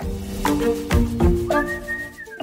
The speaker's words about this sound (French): Ah non, c'est un sifflement.